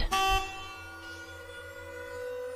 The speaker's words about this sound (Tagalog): Sa sandaling marinig ng muli ang langit-ngit ng bumababang tarangkahan ay bumusina ng isang beses bilang tanda ng pasasalamat.